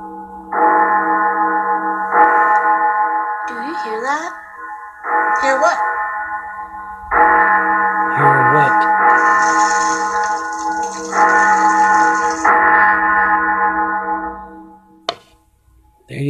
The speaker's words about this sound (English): He told her about the bells, and the bells are ringing.